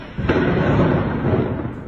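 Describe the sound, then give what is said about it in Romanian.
A single powerful explosion at night in Kyiv, the capital of Ukraine, booms out with a sudden sharp onset, then a deep, heavy rumble rolls on and slowly fades, sounding forceful. “În noaptea următoare, cel puțin patru explozii puternice au zguduit capitala Ucrainei.”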